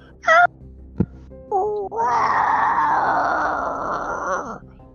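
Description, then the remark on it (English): A person vocally imitates a monster: a couple of short whiny cries and a sharp knock, then a long, raspy, screeching roar sustained for about three seconds, loud. “And about the time your arrow sinks into that guy, you hear a loud bang and you hear that same like screeching roar.”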